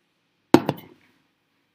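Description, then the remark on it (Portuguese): Glass breaking during a live stream from a studio: a sharp, bright crash followed quickly by a second impact, then a short scatter of fading tinkles and one faint high clink a moment later. No one speaks. “Quebrou um vidro aí. Vocês ouviram, cara?”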